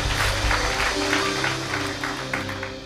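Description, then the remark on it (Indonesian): An audience claps steadily for about three seconds in applause for Jesus during a sermon, a dense, continuous patter of many hands, with a low sustained musical tone humming underneath and no one speaking. “Tepuk tangan buat Tuhan Yesus katakan amin.”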